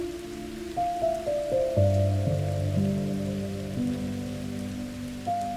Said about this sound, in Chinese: 现在，你可以试着打开你的听觉，当你听到外面正下着雨。